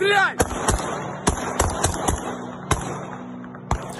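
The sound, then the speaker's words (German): Around eight sharp rifle shots ring out at uneven intervals, loud, some in quick pairs, as police standing among apartment blocks in Kyiv fire their rifles skyward at an attacking drone, while a steady hum and excited shouting voices fill the background. “Äh, sie rufen aufgeregt, da ist die Drohne, versuchen die mit ihren Gewehren abzuschießen.”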